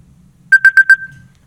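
A quick burst of four evenly spaced, loud electronic beeps as a quick timer finishes, with the last tone lingering briefly before fading, over a faint low hum.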